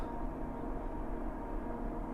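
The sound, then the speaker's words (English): A steady mechanical whine from a forage harvester moving about 10 miles an hour over a row, picking up and chopping alfalfa and throwing it into a truck, droning continuously with a low engine rumble underneath. It is fairly quiet and constant, with no voices. “that whine.”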